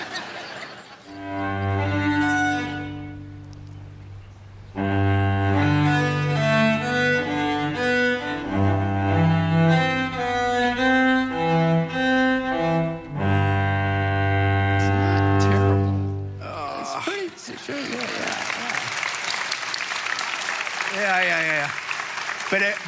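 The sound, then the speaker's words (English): A beginner cellist with only two lessons attempts one of the cello suites, playing slow, sustained low notes in a halting, uneven line for about seventeen seconds, then a burst of audience applause and laughter takes over at the end. “tried to play the cello suites. And we have a recording of that.”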